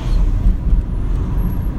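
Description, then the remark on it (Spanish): Steady low rumble of road traffic with air brakes, a continuous drone of engines and tires, fairly loud and even throughout, with no voices over it. “Perdón, es que estoy en el tráfico.”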